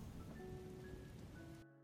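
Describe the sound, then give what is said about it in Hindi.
Steady heavy rain patters down in a continuous dense hiss of drops while two people sit silently in a car, with a low rumbling undertone and faint tonal hum, cutting off abruptly near the end. “दस मिनट तक दोनों चुपचाप बैठे रहे बस बारिश की बूंदें ही शोर कर रही थी”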